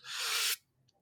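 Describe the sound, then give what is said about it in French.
A voice imitates a comb scraped across a hard surface: one sustained, hissy, breathy rasp lasting about half a second, fairly loud, followed by a couple of brief faint clicks. “Là, quand on frotte un peigne sur quelque chose de dur, là, ça fait un genre de mm-hmm.”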